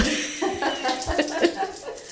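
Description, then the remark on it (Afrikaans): A parrot growls at a microphone, a string of rough, raspy bursts with a few brief squeaky tones mixed in, steady and fairly loud over about two seconds. “Ja, hy grom vir daai mikrofoon.”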